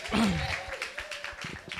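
A short burst of crowd applause, dense scattered clapping that stays fairly steady for about two seconds, with a brief voice-like tone near the start.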